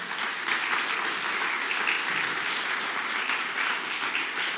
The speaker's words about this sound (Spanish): Dele un aplauso al Rey de la Gloria.